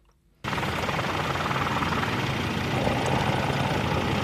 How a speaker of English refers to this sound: This Worsley Road resident first got wind of the fire on Wednesday afternoon when a helicopter flew over his house. Turn around, one helicopter, literally 30 seconds later, it's the second helicopter.